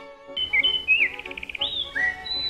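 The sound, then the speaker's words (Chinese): A robin chirps and sings alone: bright, high whistled notes that slide up and down, with a quick rapid trill of repeated pips partway through, over a soft low background rumble. “有一天，一只饥饿的知更鸟看见了一条一寸虫停在树枝上”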